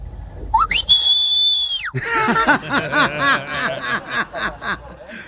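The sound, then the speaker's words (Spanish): A loud, sharp human mouth whistle rises quickly and holds a steady piercing note for about a second, the whistle many Latino parents use to call their children, followed by bursts of rhythmic laughter. “Sí, ese es un silbido como internacional”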